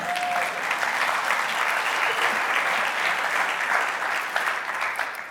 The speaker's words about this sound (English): claps, we all clap. Come on.